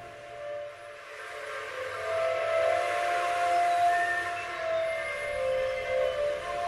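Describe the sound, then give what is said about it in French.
An ambulance siren holds a steady, piercing wail, fairly loud and unbroken for several seconds, with a faint background hum and no voices. “J'imagine ce qui peut se passer dans cette ambulance.”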